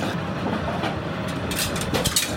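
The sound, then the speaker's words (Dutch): Steady, loud sizzling from a hot pan of pasta fills the whole moment, with brighter hissing bursts near the end as the pasta is turned and tossed with tongs. No one speaks. “Je hoort het een gesis.”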